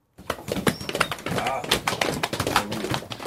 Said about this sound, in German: Das Publikum trampelt jetzt ganz laut, um zu zeigen, dass die Tiere sauer sind und die Wespe suchen gehen.